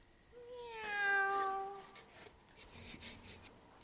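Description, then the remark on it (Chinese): A single drawn-out cat meow rises and then falls in pitch, clear and fairly loud, lasting over a second, followed by quieter scuffling and rustling noises. “一只猫就把你们吓成了这样”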